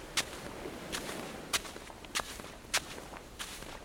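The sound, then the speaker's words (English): Slow, heavy footsteps of someone carrying a very heavy box trudge along at a steady plodding pace, about six distinct thudding steps roughly half a second apart, with no voices. “Someone has just come trudging along carrying a very heavy box.”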